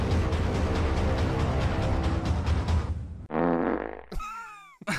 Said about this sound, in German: In the U3 U-Bahn every morning at rush hour. The Phantom Farter strikes.